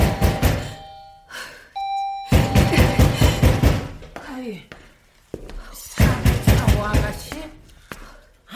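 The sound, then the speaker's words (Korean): Repeated heavy knocking at night on the door of apartment 403 in loud bursts, with a short two-tone doorbell chime in between and people's voices talking over the banging. “아, 빈집을 왜 그렇게 두드려대?”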